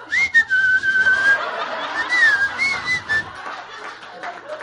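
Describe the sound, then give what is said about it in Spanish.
A person whistles a wavering, sliding tone that rises and dips a few times, imitating a cold draft (chiflón) coming in through a door, with light laughter and breathy chuckles mixed in. “Yo me imaginaba un pendejo entrando por la puerta así de...”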